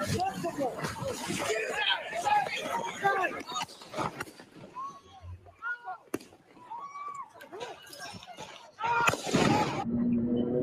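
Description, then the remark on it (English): One sharp gunshot cracks out in the middle of a chaotic crowd as Rittenhouse shoots Gage Grosskreutz in his right arm, with people shouting and yelling before and after the shot, and the noise swells again toward the end. “Rittenhouse shoots Grosskreutz in his right arm.”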